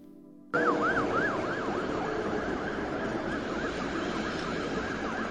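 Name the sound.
ambulance siren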